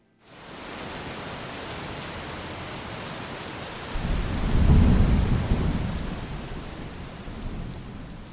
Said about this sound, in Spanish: ha vuelto a llover.